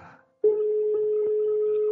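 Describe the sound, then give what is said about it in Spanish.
A single steady telephone ringing tone, a loud electronic hum that holds for about a second and a half before cutting off, with a brief muffled noise just before it starts. “Uh, espera. Un tono.”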